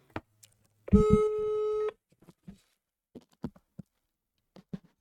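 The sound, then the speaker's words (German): A single loud, steady electronic tone from a phone line, lasting about a second, as an outgoing call to McDonald's rings through, followed by faint scattered clicks and quiet background noise. “Jetzt, äh, jetzt ruf bei Mac an!”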